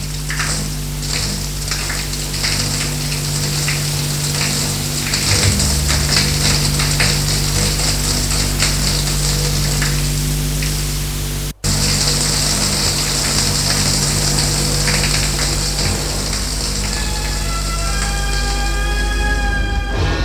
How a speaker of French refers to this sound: Et elle va dans sa salle de bain prendre sa douche.